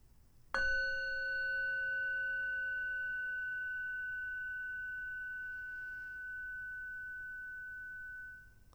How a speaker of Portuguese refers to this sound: E quando você ouvir o som do sino, gentilmente abra os olhos.